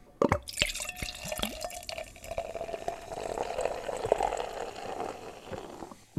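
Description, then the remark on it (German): Beer is poured into a glass, a steady gurgling, splashing stream with a few sharp drips at the start, fizzing as the glass fills over several seconds. No one speaks. “So, jetzt lasse ich das mal ins Glas fließen.”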